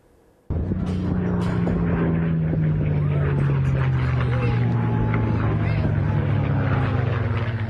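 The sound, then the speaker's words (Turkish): Two historic World War II-era propeller warplanes roar overhead at an air show in Dallas, United States, their engine drone cutting in suddenly and staying loud, the deep throbbing pitch sliding slowly downward as they pass. “iki tarihi savaş uçağı havada çarpışarak yere çakıldı.”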